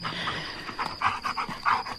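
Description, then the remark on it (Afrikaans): A dog pants in quick, steady breaths, a run of about half a dozen raspy huffs over a soft constant hum, with no one talking. “Kan jy ook nie slaap nie, Bixie? Dit gaan rof hier, né, my hond.”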